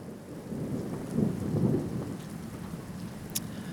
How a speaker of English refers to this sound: Uh, it's a dark and stormy evening.